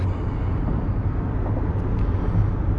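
car driving

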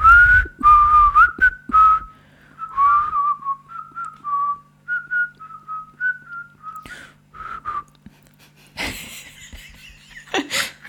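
person whistling a melody

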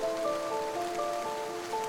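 heavy rain falling

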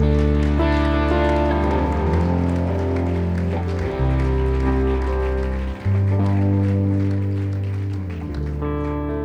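audience applause

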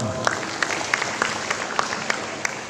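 audience applause

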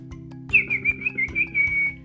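small bird chirping

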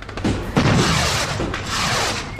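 fireworks bursting

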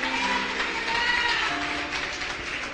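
audience applauding

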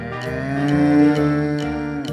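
cow mooing

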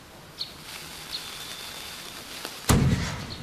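cannon shot

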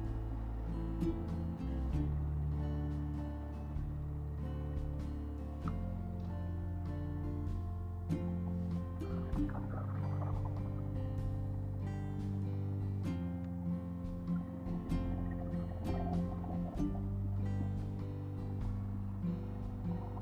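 motorcycle engine

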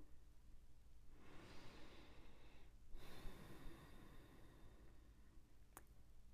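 three deep breaths

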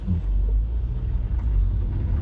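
car driving in traffic

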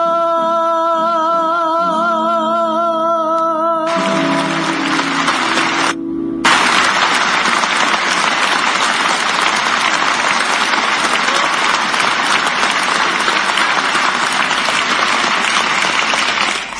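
audience applause

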